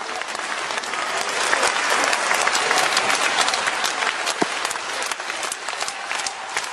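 Steady, dense applause from an audience fills the whole stretch, many hands clapping at once in a continuous wash of sound, fairly loud, with no talking over it, welcoming a guest.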